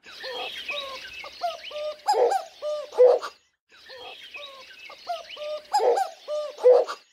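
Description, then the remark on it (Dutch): A male cuckoo, excited on hearing a female, calls in rapid, stuttering bursts of hollow notes, repeated twice with a short pause between, set against a bright chorus of other birds twittering in the background. “Maar als je dat vrouwtje hoort, en misschien soms ook reagerend op elkaar, dan kan hij van opwinding overslaan en dan hoor je dit.”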